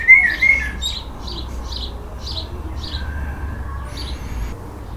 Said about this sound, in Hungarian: de hallgassunk inkább madárdalt.